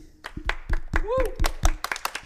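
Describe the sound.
An audience claps for a guest: a brief run of sharp, fairly steady claps at moderate loudness, with voices talking and calling out over the applause.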